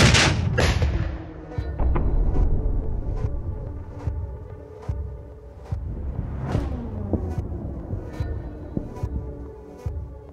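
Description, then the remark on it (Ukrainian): Several booming artillery shots fired at the enemy go off at irregular intervals, each a sharp, loud crack over a constant low rumbling roar, with a few fainter reports in between. “Ми виявляємо противника до того, як він дійшов до переднього краю, і артилерія наносить по ньому вогневе враження. Постріл! Постріл!”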